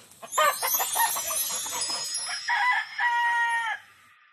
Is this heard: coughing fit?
no